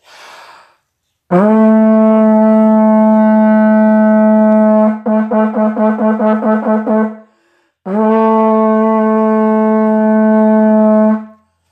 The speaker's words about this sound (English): I have a Vuvuzela in my hand